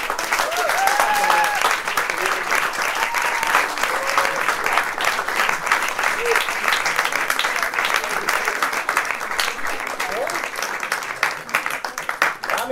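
Sustained, dense applause from a large audience fills the whole stretch, loud and steady with many hands clapping at once, a few cheers and whoops rising briefly above it.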